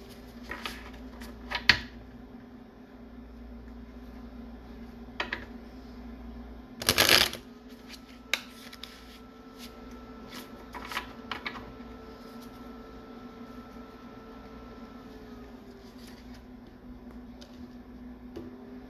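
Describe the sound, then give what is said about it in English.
Tarot cards being shuffled, with scattered soft flicks and taps and one loud, quick riffle partway through, all over a steady low electrical hum and no talking. “Let me redo that shuffle.”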